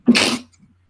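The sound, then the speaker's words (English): One forceful sneeze: an abrupt explosive burst of breathy noise lasting under half a second, then quiet with only a faint trailing breath. “Bless you. Thank you.”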